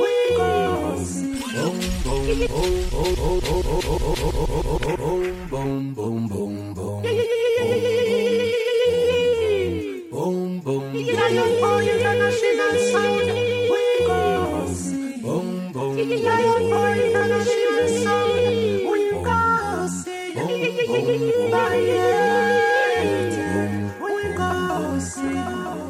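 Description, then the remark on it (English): A reggae dub plate for Lion International sound plays loud, with a heavy, pulsing bassline under a melodic vocal line and steady rhythmic backing that runs continuously for the whole stretch. “Take a listen. Boom, boom, boom, boom, boom. The most trending dub.”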